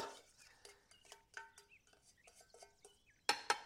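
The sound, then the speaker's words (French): A spatula scrapes and taps around a small metal saucepan of melted butter in a quick series of light strokes, ending with a couple of sharper clinks, fairly quiet. The butter is being scraped out to add to a blender. “Corner, ça veut dire racler, je vais corner ma petite casserole avec le beurre et je vais l'ajouter dans mon blender”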